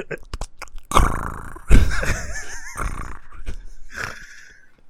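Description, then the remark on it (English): A person voices rough guttural growls and rattling, warbling throat noises, imitating the growl of the Predator alien, with a short laugh near the start. “I'll do a rehash of the predator noises.”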